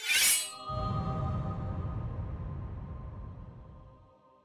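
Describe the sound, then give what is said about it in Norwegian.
A real sword, not a rubber one, is drawn from its scabbard in front of a microphone: a quick bright metallic scrape, then a sustained ringing tone that slowly fades over a low rumble, fairly loud, with no voices. “Så nå skal jeg trekke det ut fra slira. Gjør vi det rett foran mikrofonen?”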